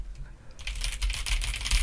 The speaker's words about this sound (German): Hört man mich tippen? Nee. In der Nein. Aufnahme gleich ist es bestimmt drin. Ähm, ja, genau. Also die, die haben halt so ein schönes, befriedigendes Klacken.